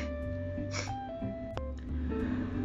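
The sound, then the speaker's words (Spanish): A drawn-out yawn with a breathy, airy intake and a gasp-like burst partway through, over a steady background hum. No one speaks. “Sigo bostezando, este...”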